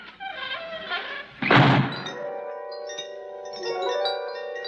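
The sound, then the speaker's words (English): A heavy solid steel door swings shut with a single deep, loud thud, preceded by a faint creak and followed by a lingering metallic ring that slowly fades. “who closed the door.”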